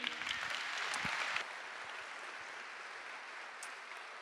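A crowd breaks into steady applause, dense clapping that is loudest for the first second and a half, then continues at a slightly lower, even level without pause.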